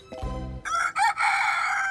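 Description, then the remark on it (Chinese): A rooster crows a loud cock-a-doodle-doo in the morning, opening with a low clucking note, then a short bright call and a long, sustained high-pitched final note. There is no talking. “Hello，公鸡早安呐、啊。”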